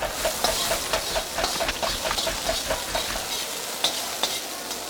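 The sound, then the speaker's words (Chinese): A metal wok spatula and a large iron ladle scrape and clang rhythmically against a wok while a large batch of shredded pork with gourd is stir-fried, over a steady, loud sizzle and hiss of frying food, with sharp repeated clatters roughly every few tenths of a second. “接着转过身，他飞舞起锅铲及大铁勺，乒铃哐啷的继续去炒他的菜。”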